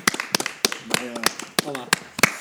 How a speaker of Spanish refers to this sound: Aplauso. Otra vez.